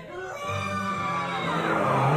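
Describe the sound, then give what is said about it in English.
A person lets out a long, loud, growling roar, imitating a beast during a quick rehearsal for a performance. The strained voice holds steady, then swells louder and rougher toward the end. “We'll start with our beast. Let me hear you roar.”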